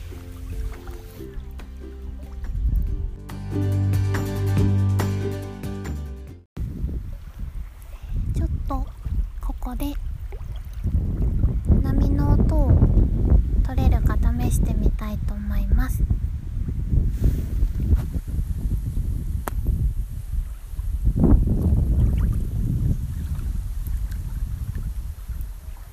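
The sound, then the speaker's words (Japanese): Waves lap steadily on Lake Shikaribetsu, a high-altitude mountain lake, while wind buffets the microphone and birds call, with faint voices of passing hikers and canoeists drifting through the background. A brief tonal passage plays at the start before the outdoor ambience takes over. “BGMは波の音、風の音、鳥の声です”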